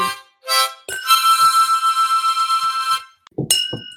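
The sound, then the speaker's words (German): Glasses clink together in a toast to another year: a couple of quick taps, then a bright, high ringing tone that hangs for about two seconds before another clink rings out. No one speaks. “Sinne nochmal anstoßen. Auf ein ganzes Jahr?”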